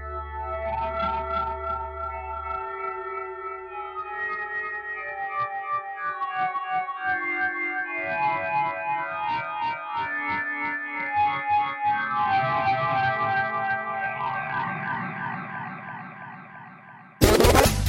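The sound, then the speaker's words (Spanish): A band plays a song drenched in distortion and chorus-like effects, dense layered guitars and steady drums filling the mix, ending with a sudden loud burst of noise. “¿Qué les pareció en …? Sensacional, me encanta esa banda.”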